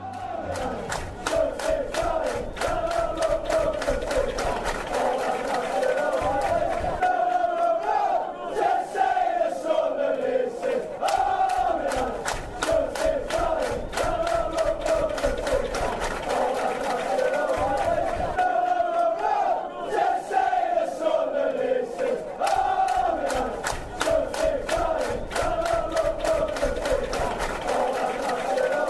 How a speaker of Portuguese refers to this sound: Por enquanto, vamos à música 4 do Som das Torcidas, All Me Lads, é uma canção da torcida inspirada em música de George Ridley.